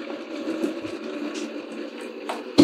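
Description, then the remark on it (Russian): A steady, continuous stream of tea poured into a cup, moderately loud, with a short knock or clink right at the end. No one speaks. “Вот налили чай.”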